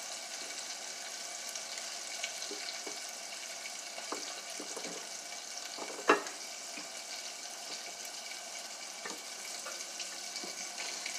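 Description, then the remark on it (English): Three or four battered pieces fry in a pan with a steady sizzling hiss, scattered small crackles and one sharper pop partway through. No one speaks. “So, so I'm I got about three or four in there right now, and they're just frying up.”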